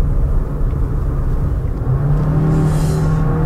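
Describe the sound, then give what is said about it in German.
The engine of a Compass plug-in hybrid SUV revs hard and loud under heavy demand, a dense low rumble that climbs into a rising droning whine partway through, with no voices. “Aber natürlich ist es so, wie bei vielen Plug-in-Hybriden, wenn man den Motor fordert, dann wird er auch gern mal laut.”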